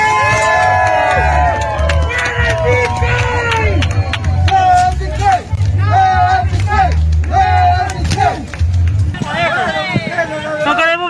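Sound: crowd protesting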